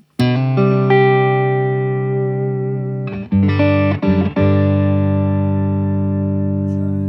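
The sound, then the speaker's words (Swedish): A sustained electric guitar chord, played on a Stratocaster with the neck pickup through an effects pedalboard straight into the amp, rings out through a tremolo effect. It is briefly chopped into rapid pulsing tremolo in the middle before settling back into a steady, loud, ringing tone. “ska, vi, ska vi lyssna lite på ditt bord helt enkelt?”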